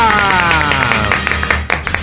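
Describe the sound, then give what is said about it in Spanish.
A short applause sound effect: loud, irregular hand claps crackle over a dense wash of sliding, falling tones, holding steady for about two seconds. “Así que ahí está un aplauso para Maya.”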